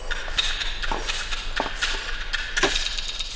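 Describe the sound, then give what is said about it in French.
A small hammer taps on rock in sharp, irregular strikes, about five or six clicks spaced unevenly over a few seconds, against a steady outdoor background hiss, as someone hunts for fossils on a beach. “De son panier, elle sort un petit marteau. La chasse commence.”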